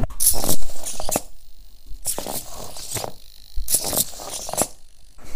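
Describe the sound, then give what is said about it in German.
Small motors of a walking robot spider, sent a command from a laptop to walk forward, whir and rattle with the microphone held to it, coming in three rhythmic bursts of clicky, vibrating buzz separated by brief near-silent pauses; the whole robot vibrates slightly. “Das ganze Ding vibriert so ganz leicht. Also man hört irgendwie so, da, da, da, da ist irgendwas los mit den Motoren.”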